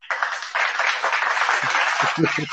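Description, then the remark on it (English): A group gives a steady round of soul-clap hand clapping, a dense, continuous patter of many hands that holds at an even loudness, with voices calling out over it toward the end. “Get a soul clap for that.”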